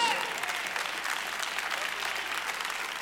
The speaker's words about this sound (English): And if y'all are getting this, clap your hands and give God praise.